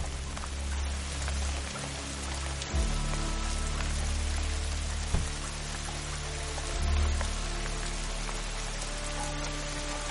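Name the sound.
rain falling at night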